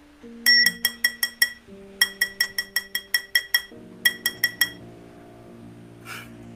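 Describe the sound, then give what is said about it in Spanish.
Bright, ringing glass clinks in three quick rhythmic runs of several strikes each, clear, over a low steady hum, with a soft faint rustle at the end, as a cat knocks over a wine glass. “¿Hace falta que tire otra de mis copas?”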